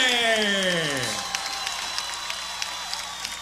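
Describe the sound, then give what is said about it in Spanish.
A drawn-out voice with a falling pitch gives way to audience applause for a musician at the tenth Día Nacional de la Salsa, a steady wash of clapping with a few sharp claps standing out, moderately loud. “Rey del Timbal, un fuerte aplauso en el décimo Día Nacional de la Salsa para ….”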